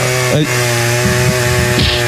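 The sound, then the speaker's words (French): A chainsaw roars loudly and continuously as it cuts down a tree, its engine pitch dipping and bogging briefly a few times under load. No voices. “et là donc il coupe l'arbre.”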